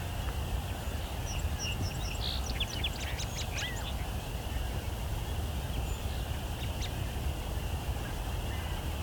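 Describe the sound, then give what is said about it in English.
Many song sparrows and an American robin sing their last songs of the night, a brief burst of bright trilling notes rising over a steady evening hum and constant low background rumble. “American robin, and song sparrow. Lots of song sparrows.”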